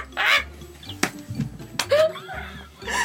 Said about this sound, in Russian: Тут ворона пролетала, извините.